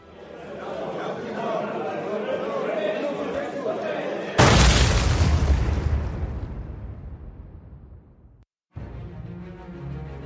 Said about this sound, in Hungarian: 1986. április 5-én hajnali 2 óra előtt robbanás rázza meg a nyugat-berlini Label diszkót. A szórakozó hely népszerű a Németországban állomásozó amerikai katonák között. A terrortámadásnak négy halottja és 230 sebesültje van.